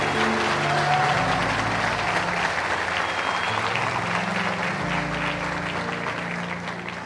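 An audience at a Bola de Neve Colombo church service claps loudly and steadily for several seconds when asked to applaud if they are thirsty, a dense wash of many hands with low sustained instrumental tones underneath, fading slightly toward the end.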